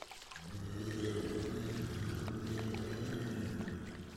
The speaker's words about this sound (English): Not a monster. Probably just someone with a really intense flush.